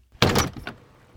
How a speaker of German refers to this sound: öffnete so leise wie möglich die knarrende Tür und verließ ihr Elternhaus, ohne zu wissen, ob es ein Abschied für immer sein wird.